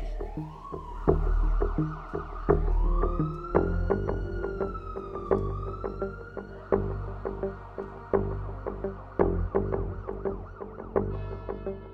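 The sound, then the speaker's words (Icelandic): A wailing ambulance siren rises and falls in slow sweeps over a busy, rhythmic backdrop of thumps and clatter, steady for the whole stretch, with no one talking. “lætur mig leggast í sófan og ringir á sjúkrabíl”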